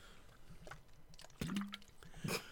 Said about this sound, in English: I have a polar water bottle, and I'm drinking water out of it, and it when I take a, a sip out of it, it it splashes back into the bottle.